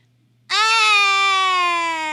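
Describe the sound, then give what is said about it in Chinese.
A small child bursts into a loud, sustained wailing cry after a brief silence, holding one high, steady note that sags slightly in pitch as it continues, among many crying children in a kindergarten's youngest class; the crying is likened to a siren. “好多好多孩子在一起，”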